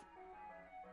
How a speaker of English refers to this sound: what that noise is, it's an ice cream van that's just driven down the street as I'm sitting next to an open window. So if you can hear it, I'll apologise.